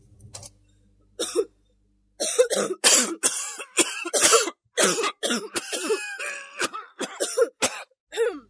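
Harsh, forceful coughing in a rapid series of bursts, loud, with throat-clearing rasps between fits and no talking, caused by a scratchy throat from stinking smoke of burning plastic tape.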